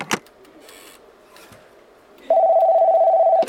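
A sharp click, a quiet pause, then a loud steady telephone tone holding for about a second, like a phone line dialing out and ringing, a call to the 911 emergency line, with no voices.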